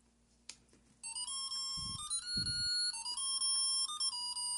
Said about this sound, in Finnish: mä voin laittaa ne jouluvalot päälle, niin saatte kuulla vähän, että minkälaiselta se kuulostaa se piipitys, joka siis täällä, niin kuin monet pitää sitä ihan niin päiväkausien päällä.